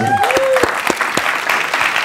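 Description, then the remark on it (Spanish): An audience applauds with dense, steady clapping that continues throughout, with a few sharper claps standing out and a brief whistle-like tone rising over the noise at the start. “Ah, no, papi, este, un aplauso también a él.”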